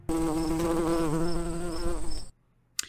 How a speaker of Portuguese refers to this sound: Então, ouvidos atentos e cabeças abertas que a mosca vai decolar.